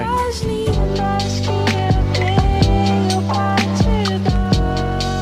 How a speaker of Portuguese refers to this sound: No lo-fi você tem um eco de fundo, como se tivesse num quarto uma pessoa escutando isso num vinil antigo. Tem um ruído de fundo e o vinil antigo.